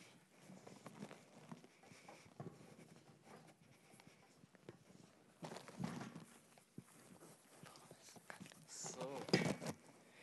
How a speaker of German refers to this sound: Ich hole mir gerade den Notenständer kurz rüber.